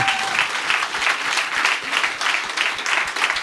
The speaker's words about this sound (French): Puis on l'applaudit, s'il vous plaît.